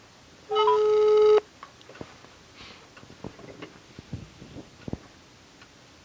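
A single steady, loud ringback tone of an outgoing phone call to a journalism student, lasting about a second, then a quiet line with faint scattered clicks and no voices.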